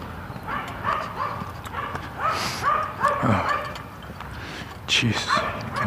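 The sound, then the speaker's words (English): A small dog in a residential neighborhood yaps repeatedly in quick, high-pitched bursts, the sharp barks coming in irregular clusters over steady outdoor background noise. “another yappy dog.”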